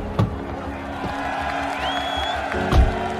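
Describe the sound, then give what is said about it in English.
A crowd of protesters at police barricades on a freezing day reacts to a man in a navy suit emerging from a blacked-out SUV, a steady, dense din of voices and cheers, with a rising whistle cutting through midway and a couple of low thumps near the start and end. “He's energetic and sprightly, buoyed by the crowd's reaction to his arrival.”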